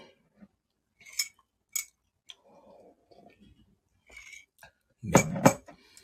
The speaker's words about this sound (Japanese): ちょっと一瞬、一瞬ミュミュートになるんですが、一瞬だけ、さっき、あの、この飲み物飲んでる音でも聞かせてください。